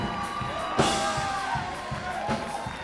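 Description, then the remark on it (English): A crowd at a worship service shouts and cheers together in praise, a dense, continuous roar of many voices with bursts of whoops rising above it, loud and reverberant. “Throw your hands up and shout one more time.”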